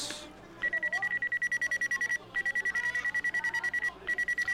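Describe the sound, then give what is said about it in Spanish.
Telephone ringback tones after dialing: bursts of rapid, trilling electronic beeps repeat three times with short pauses between them, clear and steady with no one talking. “Marca finalmente el teléfono y se escuchan dos eh, tonos.”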